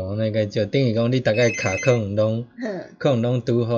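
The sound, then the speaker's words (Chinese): A telephone rings faintly beneath continuous conversation during a broadcast talk show, its electronic tone only partly audible through a man's steady talking; a caller's phone call coming in while the show is not open to calls. “为什么我们现在这里有电话进来？”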